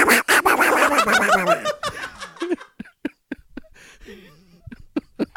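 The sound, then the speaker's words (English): A voice imitates the angry sound of Donald Duck with the vocal cords, a loud, raspy, sputtering squawk lasting about two seconds, followed by scattered soft laughs, gasps and clicking breaths. “So, I guess I can I can I can make like the Donald Duck angry sound.”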